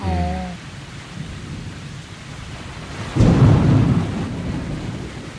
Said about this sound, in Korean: 그때 쏴! 비 내리는 소리가 들리기 시작했습니다.